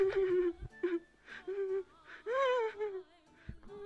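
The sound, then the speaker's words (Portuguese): A voice imitates a fox crying beside a tent at a campsite, giving a series of high, wavering whimpers and whines in short bursts with one longer, rising cry near the middle, fairly quiet. “Ao lado da barraca estava um raposo a chorar.”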